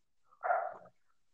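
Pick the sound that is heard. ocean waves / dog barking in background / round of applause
dog barking in background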